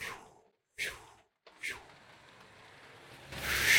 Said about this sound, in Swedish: Bra timing. Ah, en till bil. Perfekt timing. Tre bilar! Har typ inte kommit någon på hela tiden.